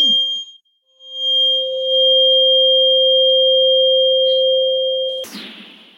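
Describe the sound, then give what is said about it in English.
A steady, pure solfeggio sine tone fades in after a short pause and holds a constant mid pitch for about four seconds, then cuts off into a brief burst of noise. “I don't suppose you'd just give me a, a ding on the dong of one little solfeggio frequency and then I'll begin reading”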